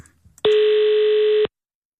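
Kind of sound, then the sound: signal or alarm, telephone dial tone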